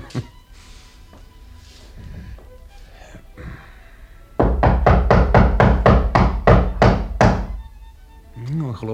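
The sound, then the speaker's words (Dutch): A quick, steady burst of about a dozen loud knocks on a professor's door, each sharp and hollow, following a few seconds of quiet, muffled background sound. “Is daar iemand? zei de reiziger toen hij op de maan verlichte deur klopte.”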